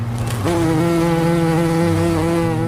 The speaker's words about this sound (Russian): Жужжание и писк мы слышим потому, что они очень быстро машут крылышками. И чем быстрее они ими машут, тем тоньше звук.